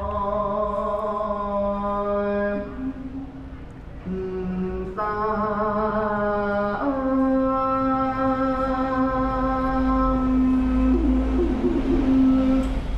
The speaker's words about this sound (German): Und während ich eben noch in einem der lebhaftesten Geschäftsviertel von Bangkok stand, bin ich nun in ganz anderen Sphären, als ich an einem der 400 buddhistischen Tempel der Stadt vorbeikomme wo gerade die Morgenzeremonie stattfindet.